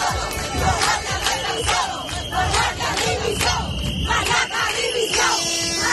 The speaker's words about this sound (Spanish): Algunos de los gritos que este viernes se han escuchado en la concentración en Cádiz, donde han acudido 200 personas para exigir más medios para las fuerzas y cuerpos de seguridad del Estado.